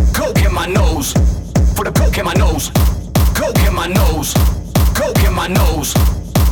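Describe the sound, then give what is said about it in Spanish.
A loud house music track, about 20 years old, with a steady, punchy four-on-the-floor kick drum driving a dense, bright electronic mix, playing continuously with no talking over it. “es el … de …, un tema que tiene unos 20 años y suena así de bien”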